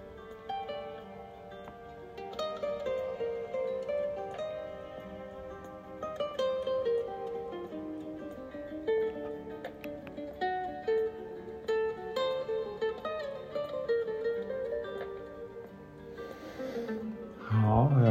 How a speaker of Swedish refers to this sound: Så jag tänkte att eh, vi lyssnar en kort stund till musiken och bara andas.